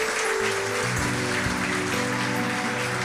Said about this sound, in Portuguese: Vamos aplaudir nosso Deus, vamos. Oh Deus, nós aplaudimos o teu nome, Jesus.